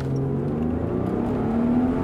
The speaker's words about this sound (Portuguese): A bordo de umas seis cilindros roncando bonito aqui.